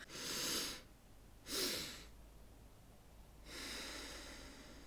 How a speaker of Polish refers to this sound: takim najbardziej dodającym energii sposobem oddychania jest metoda dwa wdechy, jeden wydech